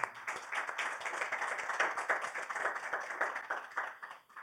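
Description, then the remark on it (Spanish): A crowd claps for the Lord steadily for several seconds, a dense wash of overlapping hand claps with no voices over it, holding an even level throughout. “Y como dice la iglesia, podemos dar palmas al Señor por eso, hermanos.”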